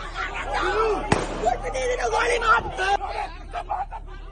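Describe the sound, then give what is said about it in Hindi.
Two sharp, loud gunshots crack out about a second and a half apart in a viral firing video showing plainclothes UP Police with pistols, over the steady hubbub of a crowd talking and shouting in the background. “firing का एक video भी वायरल हो रहा है जिसमें गोली चलने की आवाज है”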